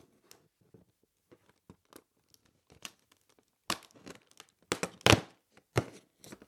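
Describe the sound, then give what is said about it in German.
Paper tearing as a small cardboard advent calendar door is pried open: faint scattered crinkles at first, then several louder bursts of ripping and crumpling toward the end. No one speaks. “Ganz schön beeindruckend, dass du bis abends warten kannst, deinen Adventskalender aufzumachen.”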